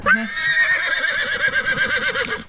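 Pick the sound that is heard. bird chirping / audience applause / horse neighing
horse neighing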